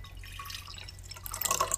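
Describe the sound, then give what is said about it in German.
Cocoa with a shot of alcohol trickles and splashes into a cup, a soft continuous pour that grows brighter and fuller toward the end, with no voices over it. “Und da schenke ich dir gleich nochmal einen ein, denn das reicht nicht.”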